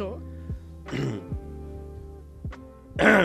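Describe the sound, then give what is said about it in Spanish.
A man clears his throat several times in quick, rough bursts, close to the mic, with short gravelly rasps and a final louder hack, no words spoken. “Espera, joder, el, el carraspeo. Carraspeo también lo odio.”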